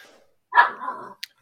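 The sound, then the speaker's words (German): A miniature spitz (Zwergspitz) puppy from a new litter lets out a single sharp, high bark that trails off into a short rough yelp, alone, followed by a brief faint click. “Also was man im Hintergrund ja. hört, ist tatsächlich äh, mein neuer Wurf.”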